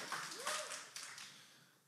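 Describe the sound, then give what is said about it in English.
A few scattered claps from a small crowd of parents in the audience, sparse, fading into quiet after a couple of seconds. “There's gonna be less proud claps.”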